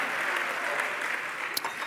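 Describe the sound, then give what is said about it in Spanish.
At a night church service, a standing audience applauds in glory to Christ steadily, a dense, even wash of many hands clapping at once without pause, holding a constant level throughout with no voices standing out. “Dale un aplauso, póngase de pie en esta noche.”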